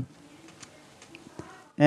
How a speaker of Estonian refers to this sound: üks kärbes tahab minuga siin võistelda.